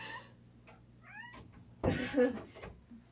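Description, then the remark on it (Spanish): A female cat named Salvia gives several short, rising chirpy meows, then a louder, drawn-out meow over a faint steady background hum. “Salvia también es una gatita lesbiana.”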